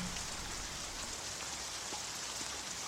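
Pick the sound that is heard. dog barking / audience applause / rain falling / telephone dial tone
rain falling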